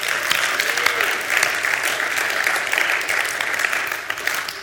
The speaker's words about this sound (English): Let's give him another round of applause for that.